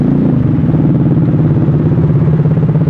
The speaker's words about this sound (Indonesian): rupanya di sini juga banyak motor yang langsung lawan arah ya